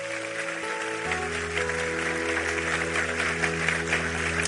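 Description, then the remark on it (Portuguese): A church audience applauds God during a sermon, a steady, dense wash of clapping that swells after the first second and holds at a strong level, with a low sustained musical hum underneath. “Aplauda ele por esse amor.”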